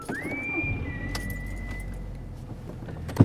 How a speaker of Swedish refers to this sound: Våra blickar möttes och låste sig i varandra för en sekund innan jag kastade mig in i bilen och startade motorn.